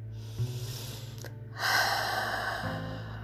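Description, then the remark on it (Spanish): A breathy inhale through the mouth, followed by a louder, longer rushing exhale, all over a low steady hum with no talking. “Este aliento que entra y sale por nuestra boca”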